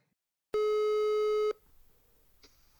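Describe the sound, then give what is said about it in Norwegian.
A single steady electronic telephone ringback tone of an outgoing prank call sounds loudly for about one second, then cuts off to quiet line noise, with a brief faint beep near the end. “Um, I dag så blir det å ringe”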